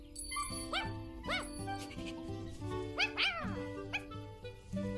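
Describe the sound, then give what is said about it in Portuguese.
A dog gives several short, high-pitched barks and yips at irregular intervals, fairly loud, over steady background music with a light tinkling jingle. “Ah, dançaram bem, agora o cachorro faria algo assim.”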